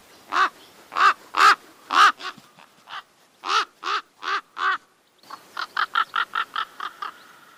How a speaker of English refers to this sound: we awoke one morning to a bird call we hadn't heard before.